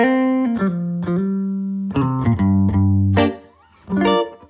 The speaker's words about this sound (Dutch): En deze gitaar heeft een ontzettende punch. Dus deze gebruik ik bij ….